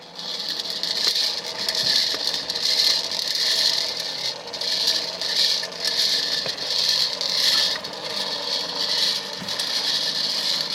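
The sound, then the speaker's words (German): A small battery-powered lottery ball drum whirs steadily as it rotates, its balls tumbling and clattering in a continuous scraping rattle with a bright, hissy edge and gentle rhythmic swells, with no voices. “Jetzt dreht sich diese Trommel, so wie sich halt auch bei der Erziehung der Lottozahlen im Fernsehen so eine Trommel dreht.”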